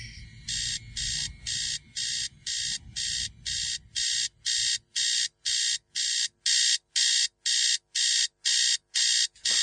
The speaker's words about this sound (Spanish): Ah, ¿Qué pasa? Maldito despertador, pero si apenas son las 4.15 de la mañana.